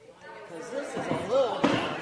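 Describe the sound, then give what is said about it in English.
Chairs are pulled back with a short scraping thump near the end, while voices murmur and talk underneath. “They pulled the chairs back.”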